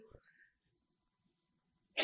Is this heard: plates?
no